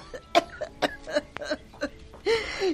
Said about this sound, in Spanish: Ya me duele la garganta de tanto toser. Le voy a dar su jarabe.